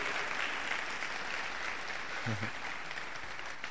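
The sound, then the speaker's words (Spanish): An audience claps steadily together in applause for the Lord, a dense, sustained wash of applause lasting several seconds at an even, moderate loudness. “Si lo entendiste, dale un fuerte aplauso al Señor.”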